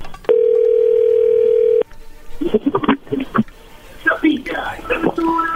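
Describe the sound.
A single steady ringback tone of an outgoing phone call sounds clearly for about a second and a half, then stops as people start talking.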